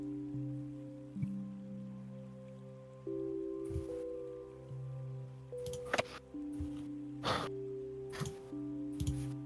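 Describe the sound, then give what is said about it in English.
Steady storm rain patters beneath a sustained, droning tonal background, broken every second or two by brief, louder splashes and bursts. No one speaks. “Hush Puppy just said that the storm is not getting any better, so we need to, um, in his words, get a move on.”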